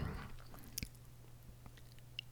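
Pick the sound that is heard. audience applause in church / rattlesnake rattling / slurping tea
slurping tea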